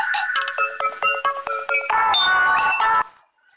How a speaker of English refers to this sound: I don't know, some random phone call there.